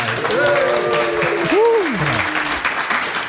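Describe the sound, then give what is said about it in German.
A live audience of about 4,000 to 5,000 people cheers and applauds loudly and steadily on request at a recording before an audience, a dense wash of clapping with whooping voices rising and falling over it throughout. “Macht euch mal bemerkbar, jubelt mal.”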